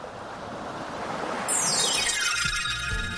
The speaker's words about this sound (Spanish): Dejó de soplar, las olas bajaron y el agua quedó completamente tranquila.